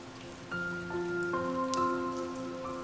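Intermittent raindrops strike the microphone during a computer call from an office at Cerro Corona, making sporadic knocks and taps over a steady background with faint sustained tones. No one speaks.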